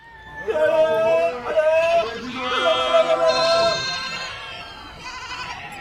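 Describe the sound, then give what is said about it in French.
A herd of goats bleats, several loud wavering calls overlapping one after another in a continuous chorus of nasal, harmonic cries that trails off slightly at the end. “Mais rien ne se passe, et le troupeau continue de les ignorer.”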